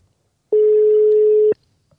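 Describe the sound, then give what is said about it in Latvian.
A single phone ringback tone while calling someone: one steady, loud electronic hum-like beep lasting about a second, starting and stopping abruptly, with near silence before and after and no voices. “mēģināsim viņu to sazvanīt.”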